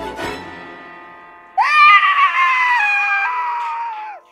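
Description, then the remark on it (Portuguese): After a short sharp tap fades away, a cat lets out one long, loud, drawn-out meow, its pitch wavering slightly before it trails off. No one speaks. “Quem tá aí? Outro gato!”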